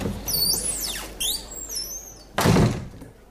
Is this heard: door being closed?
yes